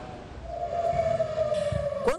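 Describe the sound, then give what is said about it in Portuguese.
An air raid warning siren wails in Tel Aviv, Israel, during a Hamas rocket attack, in a long, steady tone that slowly sinks in pitch over a rumbling background of street noise. “sirenes voltaram a tocar em Tel Aviv, teve muita correria.”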